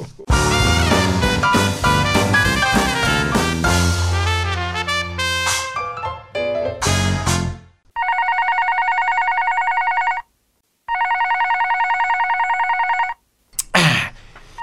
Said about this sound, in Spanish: Ahí está el teléfono, Chávez. Mm, a ver, atenderé.